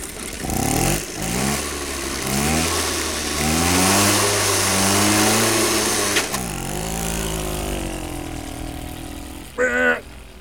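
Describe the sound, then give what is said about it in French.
A small moped engine buzzes and revs on a country road in France, its pitch climbing and falling as it accelerates through gears, then settling into a steady drone; a brief louder burst of sound comes near the end. “Et alors, un son de mobilette sur une route de campagne.”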